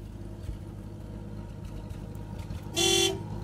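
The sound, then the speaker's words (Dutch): An old car pulls up and stops, its engine idling with a steady low rumble, then a single loud, brassy honk of its horn sounds for about half a second near the end. “Nadat Karen de deur achter haar rug sloot, stopte er een oude auto voor haar neus.”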